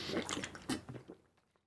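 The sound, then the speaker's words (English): A brief splash of water from a big bottle being poured onto a person and spilling, busy and bright for under a second, then tapering into a few faint drips as it fades out. “I just poured it on myself.”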